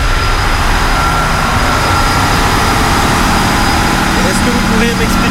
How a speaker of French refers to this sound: tous les moteurs qu'il y a euh, ici euh, dans la salle des machines